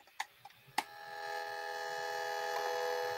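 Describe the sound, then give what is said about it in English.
A few soft clicks, then a steady synth note, with an octave button adding a unison octave below, swells in and holds, rich and buzzy with the deeper octave layered underneath, sustaining evenly to the end with no voices. “So when I uh, hold a note right now, actually I'm gonna lift the speaker off so you can hear it a little better.”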